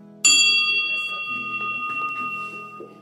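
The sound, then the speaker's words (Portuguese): A small handbell kept at home is struck once, its bright metallic ring sustaining and slowly fading over a few seconds, with faint low murmuring underneath. “Pra tocar aquele sino que tem aqui em casa. Aliás, espera aí, ó. Vou tocar ele aqui, só um pouquinho.”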